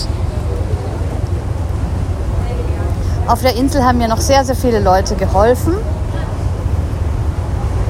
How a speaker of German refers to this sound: Hier bläst ein ordentlicher Fahrtwind, es ist aber überhaupt nicht kalt, es ist wirklich sehr schön warm. Der Wind tut mir sogar gut.